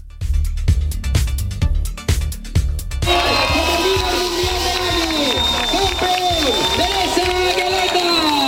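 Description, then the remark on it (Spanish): Quick, rhythmic footfalls of marathon runners, from a field of 12,000, patter for a few seconds, then a loud, steady wash of crowd noise takes over: cheering, shouting voices and a thin whistle running through the din. “Y una maratón histórica”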